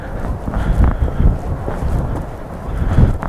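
Strong wind roars and buffets, a heavy low rumble with gusty surges throughout, loudest near the start and end, with no voices.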